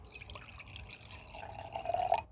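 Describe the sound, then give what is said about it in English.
Cider trickles and splashes into a small flask, the gurgling pitch climbing steadily as the vessel fills over about a second, with no talking. “All right, well, we got some little flasks here, so I'll pour one each for you guys.”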